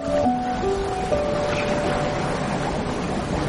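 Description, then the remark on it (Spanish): A steady, full wash of open-sea waves surging and churning, continuous and fairly loud throughout, with a faint tonal hum near the start and no voices; two people swim in the sea about 10 metres from a sailboat. “En el mar, ambos hermanos flanquean el cadáver de su madre.”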